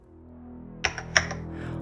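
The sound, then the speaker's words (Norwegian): A brief burst of keyboard typing: four or five quick, crisp key clicks in an uneven rhythm, over a steady low background hum. “Også Reidar Osen tar til tastaturet.”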